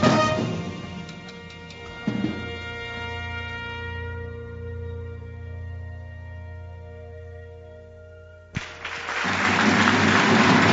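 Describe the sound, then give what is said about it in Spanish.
Sustained, fading musical tones give way to a sudden burst of loud applause in a plenary hall (salón de plenos) for a work showing the life and work of Joaquín Fuentes, a dense wash of clapping that fills the final two seconds. “Bueno, aplausos.”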